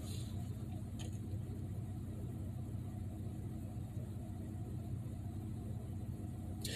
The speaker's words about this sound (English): There's a white woman driving by me right now, looking in my car just to see what I'm doing.